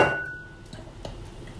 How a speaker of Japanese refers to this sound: チャーシュー切っております俺チャーシューちょっと厚めに2枚でいっか